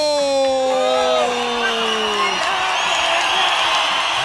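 A crowd claps and cheers steadily throughout, with a loud whoop sliding downward in pitch at the start before the applause carries on as a dense, even roar.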